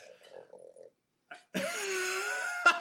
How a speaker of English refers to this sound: No, he's just gonna chew on his bone.